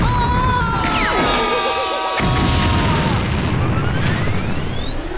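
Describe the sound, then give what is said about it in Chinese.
A Concorde airliner catching fire, crashing and exploding: whining, sliding engine tones give way to a loud, sustained rumbling blast and roar that fills the whole clip without letting up. “这个协和飞机可能就是这样的喽。啊，不对，着火了！”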